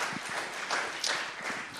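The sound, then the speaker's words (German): A small crowd applauds a guest, a dense patter of many hands clapping at moderate volume, steady throughout the brief moment with no voices on top. “Ein kleiner Applaus für ihn.”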